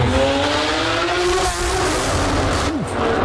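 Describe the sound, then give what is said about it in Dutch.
The engine of a Novitec Lamborghini SVJ roars loudly and continuously as it is revved in an underground garage, its rising revs filling the space with a dense, slightly distorted, echoing growl. “reed de Novitec Lamborghini door SVJ”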